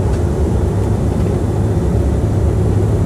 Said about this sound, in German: Und jetzt sitze ich im Flugzeug, wie man hört. Wir starten gerade.